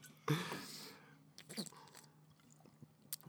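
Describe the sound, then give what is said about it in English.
Someone takes a drink of Jarritos soda: a sharp fizzy sip near the start, then quieter gulps and wet mouth sounds at a low level, with no talking. “I'm drinking that one, bud.”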